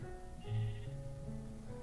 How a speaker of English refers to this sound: And yeah, there's a sheep here. I'm just gonna use my pickaxe to yeah, yeah, yeah, kill some wooden mutton.